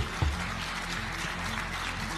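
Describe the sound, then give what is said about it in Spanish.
A large crowd at the Federation Assembly gives Rubiales a standing ovation, a dense wash of clapping at an even volume throughout, with a faint low hum underneath and no voices standing out. “Aquel día, en la Asamblea de la Federación, le aplaudieron en pie, además, quienes luego salieron a censurar su comportamiento, entre ellos el seleccionador masculino.”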